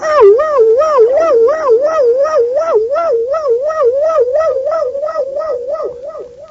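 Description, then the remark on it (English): A voice imitates a telephone's off-hook emergency warning tone, a loud, continuous wavering wail that rises and falls steadily about twice a second for several seconds, with no other sounds. “Have you ever heard them put that, that emergency sound on a phone that's off the hook?”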